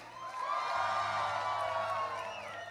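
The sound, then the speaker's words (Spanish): A church audience erupts in joyful shouting and cheering to the Lord, a dense wash of many voices whooping and yelling together, sustained and loud for a few seconds before easing slightly. “Y si le puedo añadir a eso un grito de júbilo, a ver.”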